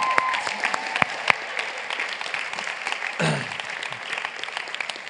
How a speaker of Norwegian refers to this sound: Da syns jeg vi kan heie litt på dem og gi dem en applaus for bra jobb.